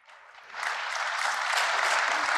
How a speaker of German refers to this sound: Der Applaus hat Gründe. Denn erstens fällt ja, der Applaus war jetzt für den Sitzungsleiter, der gesagt hat, hier Redezeit und so.